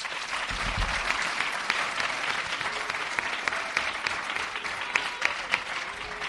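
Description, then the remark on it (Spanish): A group claps steadily for several seconds for pupils from Colegio Las Esclavas and Colegio Montessori, a dense, crackling wash of many hands with no pause, holding an even loudness from start to finish. “estamos con alumnos de segundo de la ESO del Colegio Las Esclavas y de sexto de primaria y cuarto de la ESO del Colegio Montessori, al que les pedimos un aplauso.”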